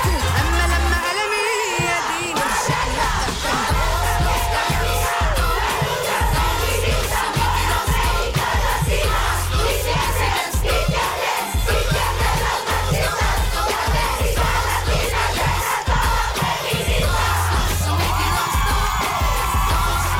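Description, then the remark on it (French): A dense, loud crowd of Mexican feminist women shouting and chanting together at a women's refuge in Mexico, with whoops and yells rising over a constant roar of voices for the whole stretch, energetic. “À la Casa de Refugio Niuna menos, les féministes mexicaines se font entendre”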